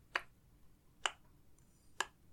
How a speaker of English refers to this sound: You can hear the clanking of metal distant pounding of hammers, things being metal being struck or worked, chains being pulled into position.